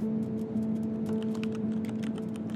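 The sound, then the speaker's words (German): Fast, continuous typing on a laptop keyboard by a passenger on an airplane flight, dense, irregular clicks over a steady low cabin hum. No one speaks. “sitzt in der Reihe vor ihm, über seinen Laptop gebeugt und tippt wie wild.”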